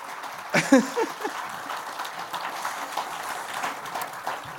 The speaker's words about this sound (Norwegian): Bingo. Ja, det er applaus, ass. Fantastisk.